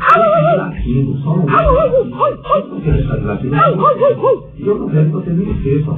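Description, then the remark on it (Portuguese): A dog whimpers and yips continuously, its high, wavering whines rising and falling in quick succession, fairly loud, with short sharp yelps breaking through the steady whining. “Agora vamos falar dele. Vamos latir.”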